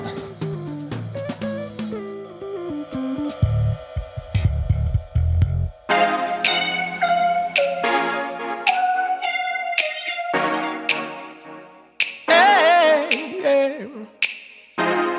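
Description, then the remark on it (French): A French pop song's instrumental intro plays clearly and fairly loud, with bright layered melodic parts and crisp snap-like percussive hits, building fuller after the first few seconds; no one speaks. “Le premier, c'est … avec une chanson qui s'appelle …. Écoutons-la maintenant.”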